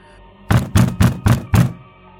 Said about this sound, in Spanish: Lo que escuché fue un golpe y mi puerta comenzó a temblar.